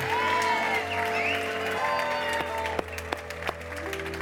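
An Exchange Church audience at an Easter service applauds and cheers for Jesus Christ over steady sustained music, the clapping dense and continuous with scattered whoops, a few sharper claps standing out near the end.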